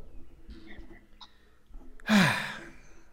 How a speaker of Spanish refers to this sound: Ok, entonces toma una respiración profunda, por favor.